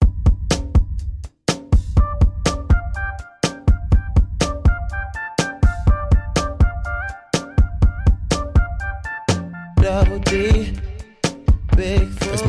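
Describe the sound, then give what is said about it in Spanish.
An R&B song plays on its own with no talking, built on a steady pulsing bass beat and bright sustained synth chords, fairly loud and continuous throughout. “Y, y si escuchas la canción, la podemos poner de fondo, si eh, sí trae una onda ….”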